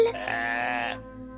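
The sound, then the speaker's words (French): A single sheep bleats once, a wavering baa lasting about a second that then trails off into quiet, with no voices around it. “Vite, il court, mais les moutons belles, ça le surprend, cette tatane glisse sur un caillou.”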